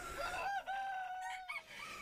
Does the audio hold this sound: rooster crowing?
yes